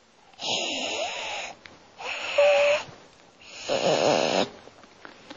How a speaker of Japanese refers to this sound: 固まっちゃった2人ともふーっと迫ってくる喉のかつれるような嫌な音がする2人の間でどんどんどんどん音が迫ってくる